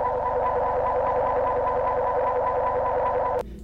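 Shrill, distorted music blares loudly and continuously from a loudspeaker, a harsh, piercing wall of sound that cuts off abruptly near the end, with no talking.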